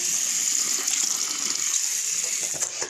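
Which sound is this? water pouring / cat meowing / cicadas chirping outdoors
water pouring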